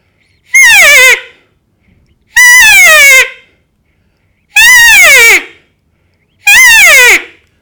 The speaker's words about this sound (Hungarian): Hát eh, sajnos az is előfordul, nem csak oda csap az őszbak neki, hanem netalántán fel is sebzi, megvérzi a sutát, és ilyenkor a suta a vészhangját hallatja. Ez valahogy így szól.